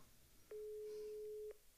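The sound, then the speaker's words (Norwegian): A phone's ringing tone over speakerphone during a call to a father: one steady, mid-low beep lasting about a second, starting and stopping abruptly against faint background hiss, with no talking. “Da skal vi ringe pappa på eh, høyttaler her.”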